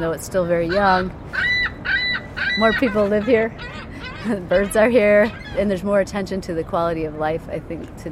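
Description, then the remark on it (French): Loud, nasal honking calls repeat in quick, overlapping bursts, like geese or similar waterfowl calling in a city park, with a steady murmur of outdoor background noise underneath. “Les oiseaux sont là et il y a plus d'intérêt pour la qualité de vie.”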